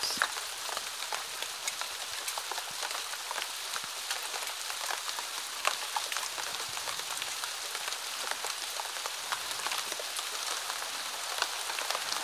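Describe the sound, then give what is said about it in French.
Heavy rain pours steadily outdoors, a dense continuous hiss with countless drops pattering and splashing on surfaces, no voices, no pauses. “Te voici dehors, la pluie battante.”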